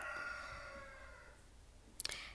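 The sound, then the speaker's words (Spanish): A rooster crows, its drawn-out, harmonic call trailing off and fading, followed by a quiet pause and two quick, sharp clicks. “Será el gallo.”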